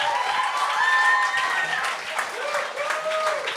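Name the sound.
audience applause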